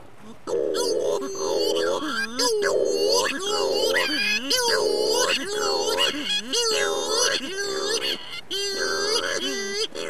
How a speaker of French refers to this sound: c'est le puffin cendré, le, le cri, ça ressemble à un cri de bébé